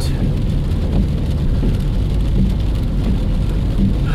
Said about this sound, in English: And it's raining out.